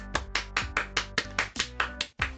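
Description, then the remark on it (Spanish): Applause in a steady, even rhythm, about a dozen sharp claps in quick succession, with a sustained low tone humming underneath, welcoming a guest being introduced. No one speaks. “tenemos a la inigualable Falopia. Aplausos.”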